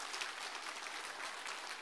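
Steady applause from a crowd, a dense crackle of many hands clapping without a break, fairly quiet and even in level throughout, with no voices over it.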